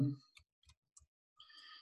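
household object, typing

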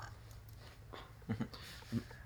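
animal, dog making noises

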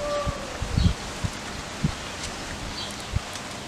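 ambience, outdoor ambience

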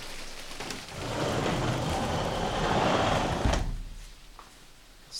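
household object, sliding window being closed

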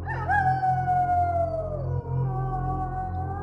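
sound effect, wolf howling

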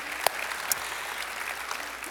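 crowd, audience applause

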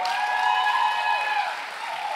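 crowd, audience clapping

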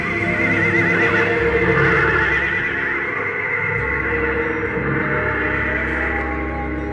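animal, horse whinnying

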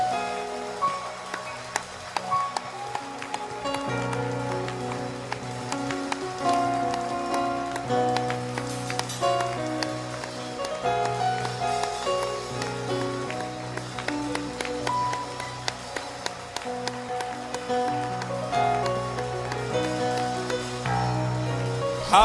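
crowd, audience hand clapping

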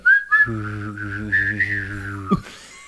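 human body sound, whistling

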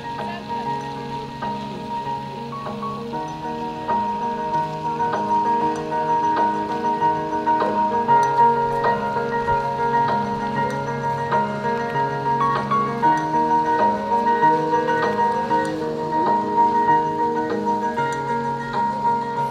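music

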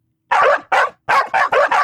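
animal, dog barking

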